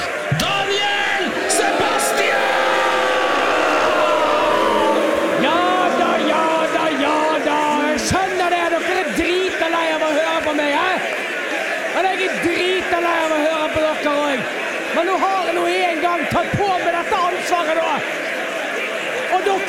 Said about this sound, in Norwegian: Gi en stor applaus til Bergens største sønn og den ultimate podkastvert